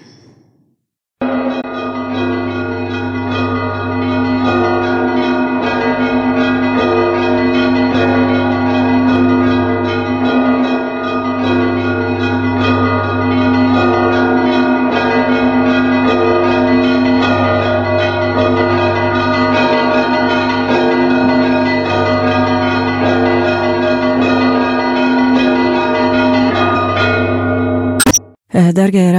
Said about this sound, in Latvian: Es viņas atļaušos uzlikt, ja? Jā, un, un tad jūs eh, varēsiet pastāstīt, ko nozīmē šīs te zvanu skaņas pareisticīgo baznīcā lieldienu dievkalpojumā.